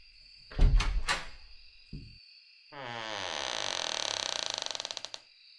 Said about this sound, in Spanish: Pero entonces, escuché cómo se abría la puerta del cuarto que nos habían asignado a cuatro personas.